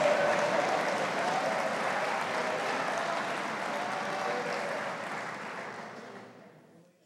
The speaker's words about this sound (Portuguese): Isso abra o teu coração, bendiga o Senhor, glorifique a Ele, exalte a Ele de toda a tua vida, exalte a Ele de todo o teu coração, e com as mãos levantadas, aplauda a Ele, diga aleluia, diga glória a Deus.